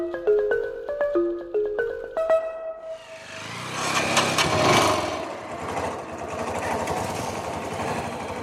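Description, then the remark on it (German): A few seconds of short melodic tones give way to the steady, buzzing drone of a motorcycle engine on the move as riders head out to the Turumbu people. The engine is loud and continues to the end with no talking. “Mit dem Motorrad fahren wir hinaus zu den Turumbu, der Volksgruppe, von der Basile Lucet erzählt hat.”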